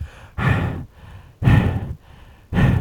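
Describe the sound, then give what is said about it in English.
A voice imitates the heavy, labored breathing of golfer Phil heard on a live hot mic: three loud, rasping breaths about a second apart, each a broad noisy burst with quieter gaps between. “the whole time, Phil was breathing as heavy as you've ever heard anybody who isn't dead breathe.”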